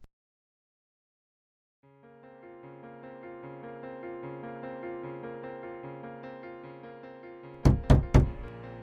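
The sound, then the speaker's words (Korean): Three loud, forceful bangs on a home's front door as a man demands the woman inside open it arrive in a quick burst near the end, breaking over a soft, sustained musical backdrop that has been playing steadily. “집에 있는 거 다 알아. 문 열어. 왜 연락을 안 받아?”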